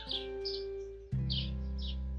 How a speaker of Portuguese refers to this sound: E com a bênção dos passarinhos